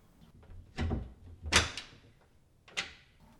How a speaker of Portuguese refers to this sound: Abriu a porta do prédio